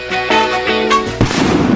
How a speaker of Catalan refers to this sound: L'explosió d'un petard molt a prop del nostre cos pot provocar cremades, lesions oculars o a l'oïda i ferides a la pell, especialment als dits i a les mans.